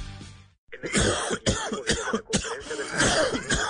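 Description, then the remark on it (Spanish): A person coughs repeatedly in harsh, rapid bursts and clears their throat, loud, after a brief silence at the start. No speech. “Mijo, yo lo escucho como mal. ¿Dificultad para respirar?”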